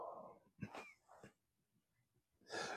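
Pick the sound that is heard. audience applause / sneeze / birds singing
sneeze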